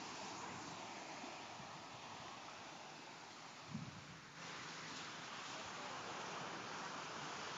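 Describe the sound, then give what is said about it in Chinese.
Steady, broad rushing of sea waves on Samet Island at night fills the whole clip, a continuous hiss of surf with a brief low thump in the middle and no voices. “这是大海天的声音。”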